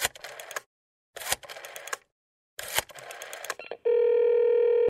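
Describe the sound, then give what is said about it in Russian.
Three short bursts of rough, crackly dialing noise separated by brief silences, then a loud, steady electronic phone tone that holds to the end, as a phone call is placed and gets through. “Так, друзья, мы дозвонились”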